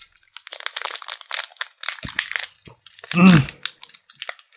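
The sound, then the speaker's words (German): Loud crinkling of a plastic Pokémon card packet (Charizard) being tugged at in repeated, uneven bursts, with a brief strained vocal grunt partway through as someone struggles to open it. “Ich krieg's nicht auf”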